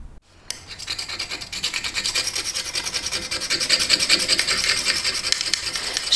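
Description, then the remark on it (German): Fairly loud scraping: a tool rasps rapidly and rhythmically across a sign, scraping off its layers, stroke after stroke without pause for several seconds, with no voices. “Schildergeschichten. Schichten. Abkratzen. Abkratzen. Abkratzen.”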